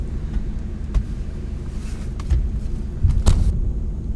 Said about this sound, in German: lass den Wagen laufen.